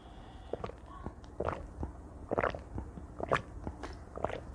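Someone drinking water: a series of soft, wet gulps and swallowing clicks in an uneven rhythm, fairly quiet, with no talking.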